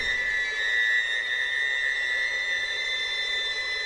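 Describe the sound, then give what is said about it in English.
Thin, sustained high-pitched string tones shimmer steadily, like violins playing harmonics near the top of their range, glassy and continuous without pause for several seconds. “of like harmonic violins on really high strings and doing some little special effect stuff.”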